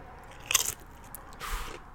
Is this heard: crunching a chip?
yes